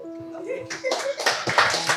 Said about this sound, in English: Awesome, yes, clap.